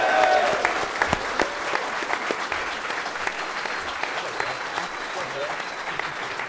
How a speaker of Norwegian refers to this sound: Skal vi gi Sondre Sørli en varm applaus?